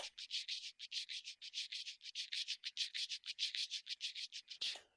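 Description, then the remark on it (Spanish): A voice mimics a shaker, recorded three times doing the same and layered together, producing a quick, steady rhythm of breathy hissing bursts, about five per second, fairly loud, with no other sounds or talking. “y puse, usé más bien como shakers mi voz, haciendo literal.”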